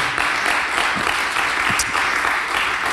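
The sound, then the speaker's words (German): Steady, dense applause from an audience at a church service, given for the worship team and supporters: a continuous wash of many hands clapping at an even loudness for the full length, with no voices standing out above it. “Lass uns mal unserem Team und unseren Supportern, unserem kräftigen Applaus geben.”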